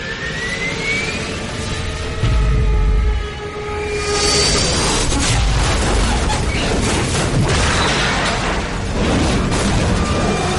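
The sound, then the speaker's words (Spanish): A high aircraft engine whine drops in pitch as a plane falls out of control and disappears behind a nearby hill, then a deep, heavy explosion booms out, giving way to a loud, sustained roaring rumble that carries on to the end. No one speaks. “Sin apenas dar crédito a la escena, este cae sin control y desaparece tras una colina cercana, momento en el que escucháis una tremenda explosión.”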